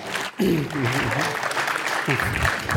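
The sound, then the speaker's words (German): Steady, dense clapping from a group fills the whole stretch at a fairly loud level, while a voice talks over it. “Also, einen Applaus bitte.”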